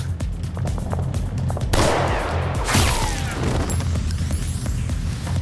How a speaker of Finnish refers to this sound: Tämän jälkeen myös viereisestä tornista alkaa kuulumaan pauketta.